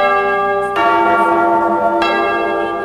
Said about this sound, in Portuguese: Toca o sino sacristão.